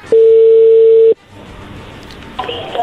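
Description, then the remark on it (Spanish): A telephone ringing tone: one loud, steady, mid-pitched beep lasting about a second, followed by a quiet gap of line hiss. No one speaks. “A ver, ya entró la llamada, no haga ruido.”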